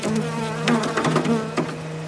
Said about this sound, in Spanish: Fuera, donde están las cajas, las abejas.